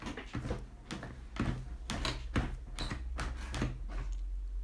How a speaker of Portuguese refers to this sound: O fantasma aproximou-se da cama e, ao mesmo tempo que andava, o soalho rangia.